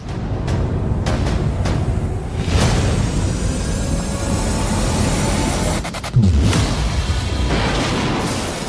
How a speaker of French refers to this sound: beaucoup d'explosions dans la bande-annonce.